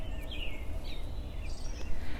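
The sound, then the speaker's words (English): A few high, thin bird chirps come through intermittently outside over a steady low outdoor rumble, fairly faint, with no one talking. “So I am outside also. So if a car goes by or you hear the birds, I apologize.”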